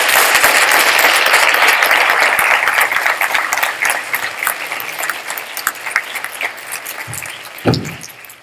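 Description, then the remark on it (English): An audience applauds loudly in praise of guests, the dense clapping sustained for a few seconds before gradually thinning into scattered claps, with a brief louder burst near the end. “Uh, would you give them a, a praise, Lord?”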